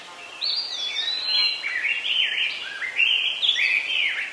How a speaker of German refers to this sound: Ein Vogel ruft